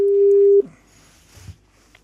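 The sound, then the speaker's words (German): A single loud, steady ringback tone of an outgoing phone call sounds for just over half a second, then cuts off abruptly into faint, quiet line noise. “Ich war fast gar nicht vorbereitet, weil es nicht Hallo, mehr getudelt hat.”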